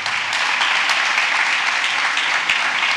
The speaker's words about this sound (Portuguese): Ah, dá um aplauso aí.